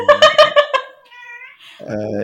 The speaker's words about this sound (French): et il me dit bonjour le chat d'ailleurs. Hein, oui, pardon.